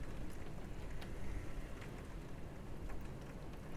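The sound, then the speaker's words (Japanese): Steady rain pours down on a stormy, raging day in a dense, continuous hiss, with occasional sharper drops spattering through the wash of noise. It sounds soft, with no voices. “雨のこんな雨の日に荒れ狂っている日に”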